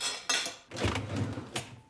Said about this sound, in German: Jetzt räumt er die Spülmaschine ein.